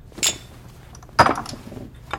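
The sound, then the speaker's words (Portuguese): Small vodka shot glasses clink together as Shrein and the twins toast, a bright tap followed by a fuller knock and a faint final chime, with no voices. “Shrein levanta sua dose de vodka.”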